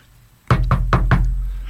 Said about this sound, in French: Je frappe à la porte.